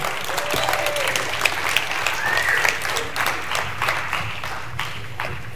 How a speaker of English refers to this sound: And uh, so just make him feel welcome. You, you guys can be a, a tad bit daunting. If you could clap, that'd be great.